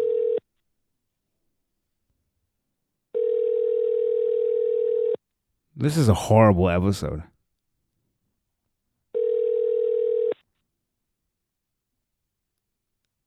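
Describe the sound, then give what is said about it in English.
Ringback tone of an outgoing phone call to a man: a steady electronic purr repeating in two-second bursts separated by long silences. A man speaks briefly between two of the rings. “Let me stop wasting time here and let me try to call him up here.”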